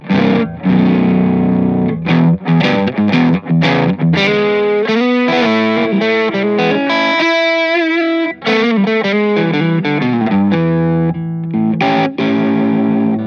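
An electric guitar played through a prototype amp with a warm, gritty, vintage Gibson-style tube sound, loud, mixing picked notes and ringing chords with a slightly overdriven, fuzzy edge and no voices.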